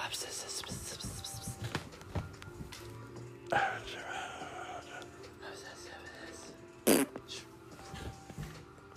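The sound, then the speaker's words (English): Short, wet, sputtering mouth-made fart noises, with a couple of louder bursts amid soft whispery breathing and rustling. “See, fart noises.”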